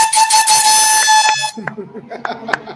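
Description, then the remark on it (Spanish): A motorcycle in the background roars with a loud, steady, buzzing tone for about a second and a half, then cuts off abruptly as a person begins speaking. “se escuchó la motora al fondo.”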